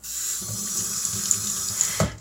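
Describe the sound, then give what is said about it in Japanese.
A frying pan being washed under a running tap: a steady hiss of flowing water with soft, irregular clatters and scrubbing knocks, ending in a brief louder splash. “今日はフライパンを洗っております”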